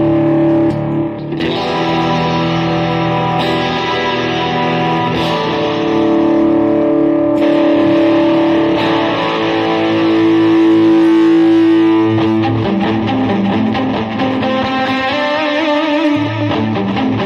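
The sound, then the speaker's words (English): A loud electric guitar runs through a distortion pedal, playing sustained, saturated chords and notes for the full stretch, thick and buzzy with a steady level and no voices. “was wrong with my pedal last night? I don't know. That's it though. It's working again.”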